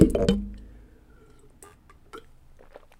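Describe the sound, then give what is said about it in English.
Someone sips water: a brief clunk of a container at the start, then quiet wet slurps, gulps and small mouth clicks spaced over a few seconds, with no talking. “Gonna have a sip of water here.”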